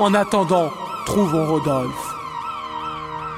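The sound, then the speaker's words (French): A building exit alarm siren, set off by pressing a red button, wails steadily, its pitch rising and falling in repeated sweeps, while a voice speaks over it during the first half before the siren continues alone. “Elle appuya dessus et une alarme se déclencha dans le bâtiment.”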